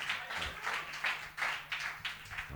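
A short round of applause: a small group clapping in a steady, slightly uneven rhythm, soft and airy, with no voices over it.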